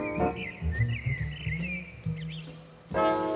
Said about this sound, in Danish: Solsortene derimod, ja, de er optaget ud af mit vindue på anden sal på Nørrebro i København på en varm sommeraften lige ved skumringstid.